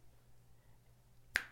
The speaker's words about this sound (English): And for anyone just listening, for some reason I've been like snapping my fingers if you're wondering what that noise is. So I think I'll stop that now.